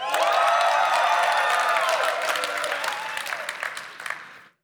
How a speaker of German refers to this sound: Könnt ihr mal von ganzem Herzen jubeln auf drei, ja? Also wirklich mit allem, was ihr habt. Auf drei. Eins, zwei, drei.